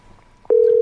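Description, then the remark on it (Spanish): A telephone busy signal cuts in abruptly halfway through, a loud, steady electronic tone that holds to the end, with only faint background noise before it and no voices. “pero ahora, ahora vamos a volver a llamar.”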